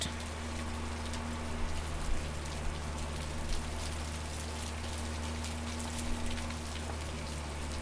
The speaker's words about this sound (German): auf dem Deck ist ein Motor und dieser Motor saugt den umliegenden goldhaltigen Schlamm vom Ufer an. Über ein Rohr wird er dann auf eine rund drei Meter hohe Holzrutsche gepumpt und dort wird die Brühe zusammen mit Wasser dann runtergespült.